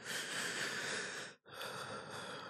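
A person imitates the deep gasping breath taken after breathing very shallowly so as not to wake someone beside them: a long, loud, airy intake of air, a brief pause, then a forceful breathy exhale, with no talking.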